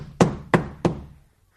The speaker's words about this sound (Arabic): افتحي افتحي والا كسرت هذه الدفه افتحي يا ساحره